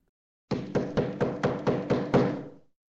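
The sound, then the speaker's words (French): A steady series of eight firm knocks on a wooden castle door, evenly spaced, each with a hollow resonant thud, the last one ringing out briefly before silence. “Peu après, on frappa à la porte.”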